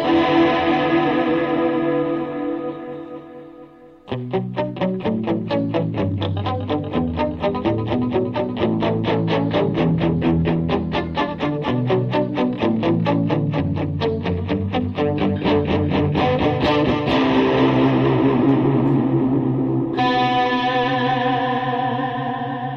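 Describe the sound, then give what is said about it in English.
Electric guitar drenched in a shimmering chorus effect: a held chord rings, then a long, steady stream of rapidly picked notes, ending on another full chord. No voices. “Wow, listen to that chorus.”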